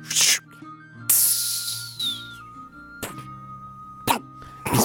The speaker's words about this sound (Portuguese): O barulho dele do ônibus parecia que ele estava tava bem- abrindo uma coca.